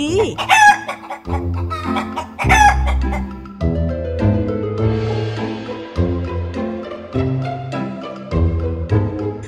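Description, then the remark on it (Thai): A rooster crows twice in quick succession near the start, loud and close, over a steady background of bouncy instrumental music that keeps playing afterward. “เจ้าไก่ได้เปิดกลาออกพร้อมกับส่งเสียงตะโกนว่า ข้าต่างหากล่ะที่เป็นเจ้าโลก”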